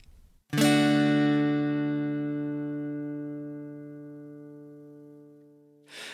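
A band's song opens with a single loud, sustained chord that rings out and slowly fades over several seconds, with no voices, ending in a brief burst of noise.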